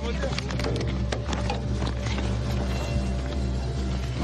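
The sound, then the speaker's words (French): The engine of a VAB armored vehicle in the woods drones steadily with a deep, loud rumble, while rhythmic metallic clanks and rattles repeat over it throughout. “Ça bouge là Non, c'est un VAB, c'est un VAB, moteur.”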